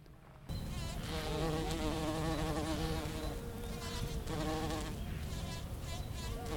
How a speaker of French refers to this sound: je vais essayer de capter le bourdonnement de cette petite abeille qui butine, elle est trop belle.